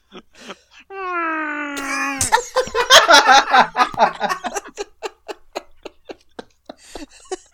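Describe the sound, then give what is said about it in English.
A voice imitates a sad, deflating balloon with a drawn-out, wavering whine that ends in a sputtering burst, followed by several seconds of rhythmic laughter. “that was like a sad balloon.”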